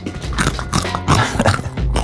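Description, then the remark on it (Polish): Loud crunching of crisp crust edges being bitten and chewed, a series of sharp brittle crackles in an irregular rhythm with no talking. “Y, ale ona... brzegi chrupią.”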